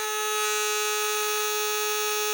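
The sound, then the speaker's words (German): A party horn gives one long, loud, steady toot with a buzzy, reedy tone that holds an unchanging pitch for a couple of seconds, alone with no talking. “Ich habe ja genügend Aufnahmen von dieser Tröte.”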